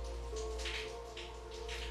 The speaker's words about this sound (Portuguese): essa chuva que cai, essa brisa que corre é bênção do Senhor. É provisão do Senhor para nós.